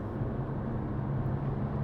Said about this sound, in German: Man hört natürlich jetzt die ganze Zeit die Stra das Auto auf der Straße im Hintergrund